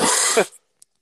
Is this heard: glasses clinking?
no